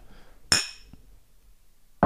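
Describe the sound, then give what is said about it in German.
Two plastic drinking glasses held side by side knock together with a sharp, bright clink that rings briefly, then a faint tap, and another clink right at the end. No talking. “Das sind die Gläser, aus denen wir trinken hier. Ja, das war, Leute, das ist Kunststoff.”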